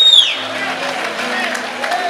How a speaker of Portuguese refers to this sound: Aplaude ela aí, irmão, pelo amor de Deus.